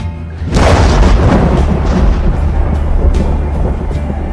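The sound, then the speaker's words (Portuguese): A loud thunderclap from lightning bursts suddenly and then rolls on as a deep, sustained rumble, with faint crackling over the low roar and no voices, during a torrential downpour. “Uma chuva torrencial castiga a região, como se já não bastassem os raios”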